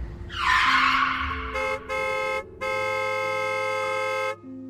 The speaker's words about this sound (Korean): 다행히 차가 급정거하면서 나는 살았어.